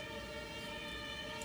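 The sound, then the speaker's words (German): An ambulance siren wails steadily and loudly, its tone holding nearly constant over a short stretch, with no voices heard. “Nee, das ist, ist ein andere. Krankenwagen. Das ist ein Krankenwagen”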